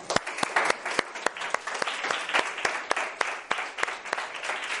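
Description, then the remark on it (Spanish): A group claps steadily for several seconds, a dense patter of overlapping handclaps with sharper individual claps standing out at a fairly constant level, no voices over it. “Un aplauso.”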